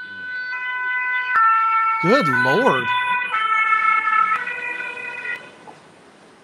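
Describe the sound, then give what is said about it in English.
A loud emergency vehicle siren blares in steady stepped electronic tones while a man briefly exclaims over it, then the siren cuts off abruptly near the end as the vehicle drives by. “Man, their siren is more annoying than ours.”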